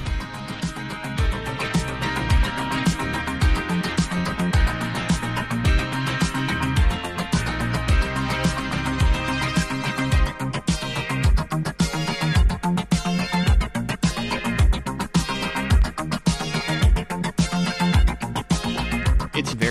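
A synth-heavy Italo disco instrumental, made completely in studio, plays steadily, driven by a punchy drum machine beat with bright, layered keyboard lines and a pulsing bassline, loud and continuous with no vocals.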